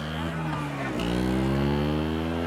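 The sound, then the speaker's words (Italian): A small motor scooter engine drones loudly in the Spaccanapoli street of Naples, Italy. Its buzzing pitch dips and then rises again as it passes, with faint street chatter underneath. “A Spacca Napoli le famiglie vivono nei palazzi storici e i napoletani sfrecciano sui loro motorini.”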